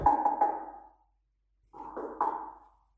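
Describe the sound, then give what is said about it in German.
Two quick sets of knocks on a door, about three raps each with a short pause between, hollow and resonant with a lingering ring. No voices. “Wenn du noch einmal die Frechheit hast, an meine Tür zu klopfen, dann gehe ich Pulp Fiction auf deinen Nacken.”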